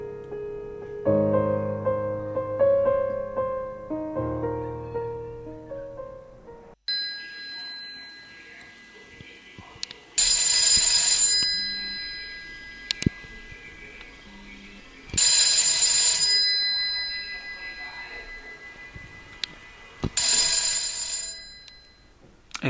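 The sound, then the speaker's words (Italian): A telephone bell rings three times in loud, long bursts at steady intervals, with a faint continuous tone between rings, after a short melodic jingle at the start. No one speaks. “Ecco, questa storia comincia così, comincia con eh, lo squillo di un telefono”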